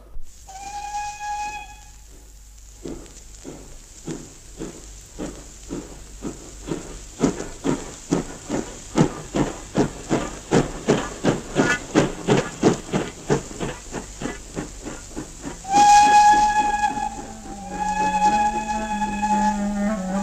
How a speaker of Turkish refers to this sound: Tamam ha? çabuk ol tren kalkıyor.